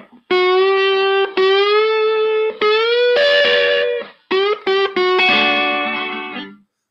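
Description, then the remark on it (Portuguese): Electric guitar played through a high-gain pedal: sustained distorted notes and bends in a phrase, then a quick burst of short picked notes before a ringing final chord that fades out. No talking. “E olha que eu estou usando o ganho alto aqui no pedal.”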